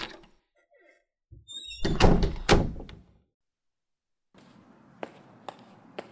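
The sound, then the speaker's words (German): An apartment door creaks briefly on its hinges as someone leaves and pulls it shut behind them, swinging shut with a heavy thud and a rattle. Silence follows, then a quieter stairwell ambience with a few soft clicks or steps. “Er verlässt die Wohnung und zieht die Tür hinter sich zu.”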